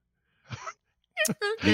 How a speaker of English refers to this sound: It does sound like a whimpering dog.